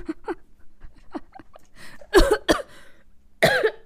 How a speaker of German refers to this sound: Oh Gott, ich darf nicht lachen, dann muss ich husten.